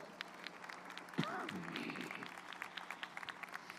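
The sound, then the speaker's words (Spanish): A crowd applauding steadily for guest pastors on the program El reloj de Dios, many hands clapping in a dense, crackling patter throughout, with a brief voice or cheer rising over the clapping early on. “Aplausos para ellos, por favor.”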